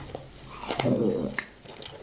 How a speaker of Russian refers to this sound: Послушайте, да, не знаю, послушайте, что еще послушайте, как мы э, немножко хрустим. Ага. Чуть-чуть совсем.